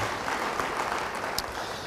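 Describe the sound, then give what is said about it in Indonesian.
An audience applauds together, a dense, steady wash of many hands clapping that holds at an even level throughout, with no voices standing out. “Yang percaya beri tepuk tangan bagi dia.”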